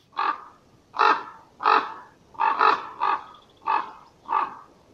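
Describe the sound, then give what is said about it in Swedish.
A corvid, cruising about looking for something to eat, caws repeatedly, about seven harsh, evenly spaced calls with one quick double caw in the middle, clear with no other sounds. “Men som sagt, det är en eh, gammal fågel.”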